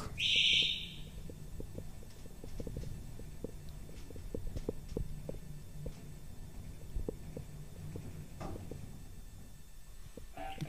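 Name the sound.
bell ringing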